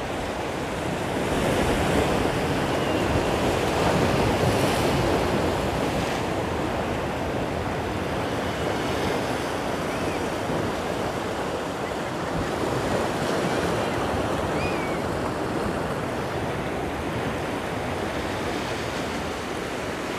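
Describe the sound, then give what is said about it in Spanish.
Steady ocean surf rolls and crashes continuously, a broad roaring wash of waves breaking on shore with some wind noise, loud throughout with no voices. “aún con la intensidad del mar.”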